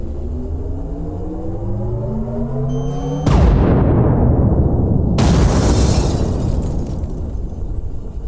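A rising electronic whine builds for a few seconds as a tactical laser locks and fires, then a loud explosion booms out as a vehicle blows up, rumbling and fading before a second crackling blast erupts; no voices.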